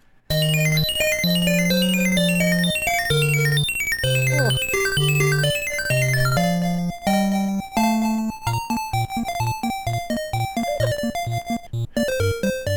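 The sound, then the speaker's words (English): A catchy chiptune-style level tune from a video game in which you blow bubbles to capture bad guys, the same song repeating level after level, plays loudly with no talking: a stepping bass line under a bright melody, shifting after several seconds into a quicker, choppy repeating pattern. “Uh, and they were just level after level and the same song repeated throughout, but this is one I remember.”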